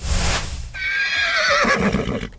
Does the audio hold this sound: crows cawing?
no